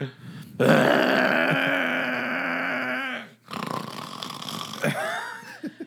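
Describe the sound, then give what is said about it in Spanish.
A voice imitates very loud, rasping snoring: one long, harsh, rumbling inhale lasting nearly three seconds, then a brief pause and a rougher, gurgling snort that trails off, forceful. “No, el dupe está roncando aquí, o sea, no hay pedo.”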